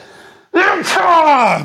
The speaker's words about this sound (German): Gesundheit. Sie rausschneiden oder ist einfach drin? Nee, komm, die Explosion war gut. Ich, ich piep's weg.